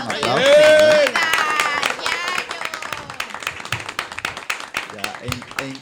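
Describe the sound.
A crowd at the anniversary of the radio show El Sol de los Sábados applauds with dense, steady clapping that continues throughout, opening with a brief loud burst of cheering voices before settling into sustained applause.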